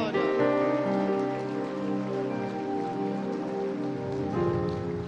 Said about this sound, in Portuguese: Aplaude ele, aplaude.